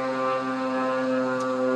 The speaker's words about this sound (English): oh, there's a plane going off. Hold on. I'll switch it up. You see it right there?